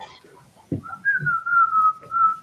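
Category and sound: human body sound, person whistling a melody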